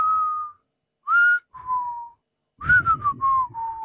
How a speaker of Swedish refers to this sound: de är ju svårast att vissla, de djupa.